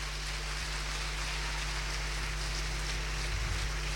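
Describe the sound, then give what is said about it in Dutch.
Loud, sustained applause from a church audience applauding the Lord, a dense wash of clapping that stays steady and even throughout, with no voices standing out. “Geef de Heer een daverend applaus.”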